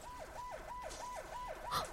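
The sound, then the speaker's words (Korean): A loud emergency vehicle siren wails in a fast, repeating up-and-down cycle, about six sweeps in two seconds, with steady road rumble beneath and no voices. “어? 어? 어? 어? 사이렌 소리예요.”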